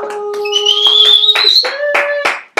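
A short burst of hand clapping, several people applauding in an uneven patter, with shrill whistle-like tones and cheering running over the claps before it cuts off.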